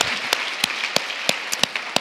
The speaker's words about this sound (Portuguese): Você pode aplaudir a palavra do Senhor? Uh! Glória a Deus!